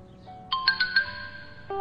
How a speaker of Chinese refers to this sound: 手机响了一下，简凡嘴角微微笑着，那是幸福的微笑。那个声音是他为江城特设的，不用看就知道是江城发来的。